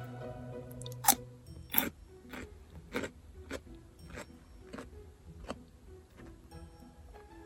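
Crisp, juicy crunching of fresh cucumber being chewed, with sharp bites at first followed by a steady rhythm of wet, snapping chews and no talking.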